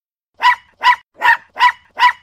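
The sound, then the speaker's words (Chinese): A small, fluffy white dog with droopy ears, by a roadside, barks five times in a steady, even rhythm, each yap short, sharp and fairly high-pitched, with brief silences between and no other sounds. “啊，小狗狗，真想带你回家啊！”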